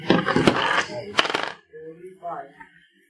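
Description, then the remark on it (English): Percentile dice clatter and roll across a table in a quick burst of rattling clicks for over a second, followed by soft, low murmuring voices. “Roll percentile dice.”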